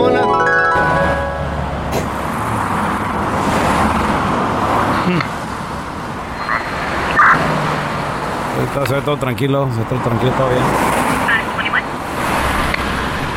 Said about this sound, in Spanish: Mira ese carro que viene ahí a lo lejos. Hijo, de...! mira nada más cómo viene el desgraciado.